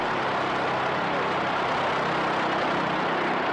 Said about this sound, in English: Everyone's running around. Baseball players are running away because they're going to get chopped up by those big propellers on the plane.